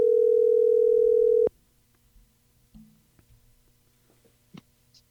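A steady, loud telephone dial tone holds for about a second and a half, then cuts off abruptly, followed by a few faint clicks and soft beeps as a number is entered.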